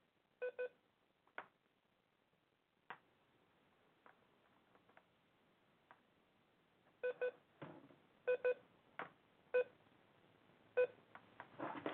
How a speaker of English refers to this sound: This fucking beeping. I hate this shit.